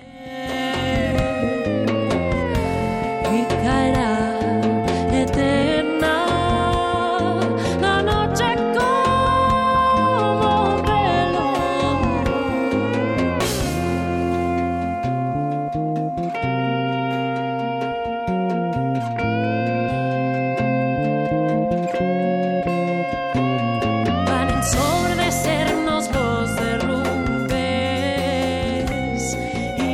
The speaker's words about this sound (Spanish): Esta canción que dice, un día de estos va a naufragar el horizonte y el cielo se va a desmayar de miedo.